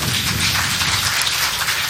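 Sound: audience applause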